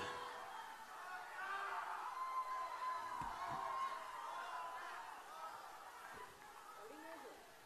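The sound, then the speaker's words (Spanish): A large festival crowd applauds and cheers in a steady, dense roar, with scattered whoops and shouted voices rising above the wash of clapping throughout. “Muchas gracias por los aplausos, por el respeto.”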